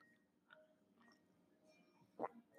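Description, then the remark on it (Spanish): Near-silence with faint mouth sounds, then a short wet gulp near the end and a louder thump-like sound as someone drinks and swallows water. “dejen tomo agua.”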